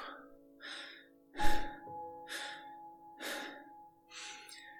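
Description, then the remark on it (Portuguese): Rapid panting breaths of a person climbing a steep uphill path, about six short airy bursts in a steady quick rhythm, fairly loud, with one sharper heavier gasp near the start over a faint background hum. “Está a ficar difícil e começa também a sentir a sua respiração uma respiração mais ofegante, de ar que entra e sai a um ritmo acelerado.”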